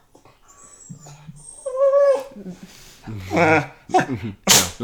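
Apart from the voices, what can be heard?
dog sneezing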